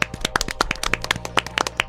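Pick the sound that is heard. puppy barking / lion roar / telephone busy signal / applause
applause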